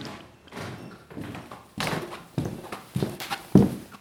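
A string of hollow, pitched pops from a measured set of PVC tubes (percussive panpipes called pans) slapped on the open end with a specially designed mallet, about eight strikes in a loose rhythm at shifting low pitches, growing louder toward the end.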